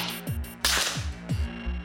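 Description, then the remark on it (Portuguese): A police sniper rifle fires a single sharp, loud gunshot during sniper training with the São Paulo Civil Police, Brazil, at targets such as eggs and an apple 100 to 150 meters away; the shot cracks and rolls away in echoes, with a few low rumbling thuds and a steady background hum. “Em todas as tentativas, o tiro foi direto no alvo.”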